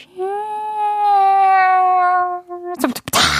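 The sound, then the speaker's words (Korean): A voice imitates the opening of a firework launch: a long, steady whistling tone that slowly drops in pitch, then breaks into a few sharp, noisy bursts. It is fairly loud. “다른 건 다 인정해도, 아니, 불꽃놀이는 일단 시작 인트로가 있잖아요.”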